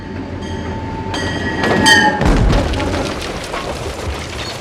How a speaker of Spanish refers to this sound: Agarraban los clavos y aprovechaban que el tren pasaba cerca para aplanarlos. Los ponían en los rieles, se alejaban.